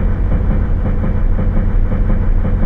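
A commuter train approaching Tabata station rumbles steadily along the rails, a loud, continuous low roar with faint rhythmic clatter from the wheels and no voices.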